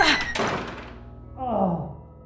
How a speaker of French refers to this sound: Ça, c'est de la claquance. Oh, y a pas photo. Quand une porte claque, eh bien, elle claque. Ça, c'est une porte qui claque.